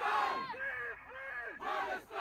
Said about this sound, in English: I mean, just London covered, blanketed, 100,000 people protesting in favor of Hamas. According to The Guardian, they said thousands, but look at the size of this crowd. I mean, it's astonishingly large.